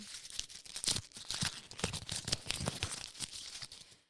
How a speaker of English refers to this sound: Oh, and then an, uh, um oh, just ripping paper. I'm crumpling it up.